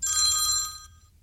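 A telephone, a call from a son-in-law answered during a live Radio Norge broadcast, rings with a bright, metallic bell tone for under a second, then fades out as its ringing decays, heard alone over a faint low background hum.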